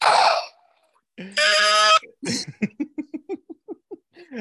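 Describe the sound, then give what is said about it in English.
Someone vocally mimics fax machine and modem sounds: a sustained buzzy, harmonic screech, a noisy hiss, then a quick rhythmic string of short chirping pulses. “this is this is great that we've gotten back to data noises, uh, uh, fax machine, and and modem noises.”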